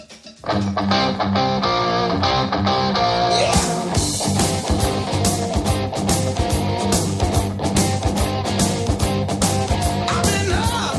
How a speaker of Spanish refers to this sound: Cuando suena esta sintonía, lo que significa es que vamos a hablar del mundo del motor y lo hacemos además con todo un experto, Alfonso García Motorman.